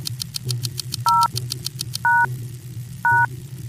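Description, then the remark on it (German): Three keypad button presses, blue once and cyan twice, each giving a short, steady two-tone beep about a second apart, heard over a low rumbling drone and a fast mechanical ticking. “Ich drücke einmal Blau und zweimal Zyan.”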